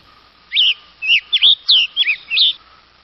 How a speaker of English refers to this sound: The tanager on the east coast of the United States, where the forests are a little denser, has one kind of call, and the Tanager on the other side, on the west, has a different kind of call.